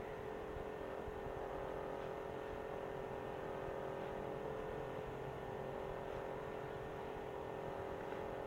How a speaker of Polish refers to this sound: Niestety nagrywanie takimi dyktafonami, jak zapewne wiele z Państwa, wielu z Państwa pamięta, miały taki problem, że nagrywał się dość duży szum mechanizmu, można było temu zapobiec dołączając mikrofon zewnętrzny, co zaraz zrobię.